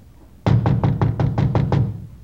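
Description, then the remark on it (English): A quick, steady run of about eight solid knocks on a fourth-floor door, fairly loud, with a hollow, woody thud to each rap and no voices. “Frank and I went up to the fourth floor and knocked at the door.”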